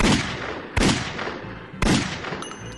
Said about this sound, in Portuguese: Ele vai até esse café e dá três tiros no peito de João Pessoa.